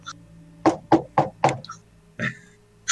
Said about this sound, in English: four swift knocks. and uh that really old... seems like the knock that most people would do.